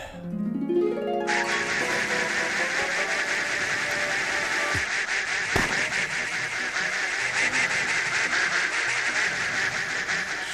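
A loud, dense chorus of many ducks quacking at once in a side-scrolling duck photography video game, overlapping continuously for about ten seconds after a short rising tone at the start, with no talking.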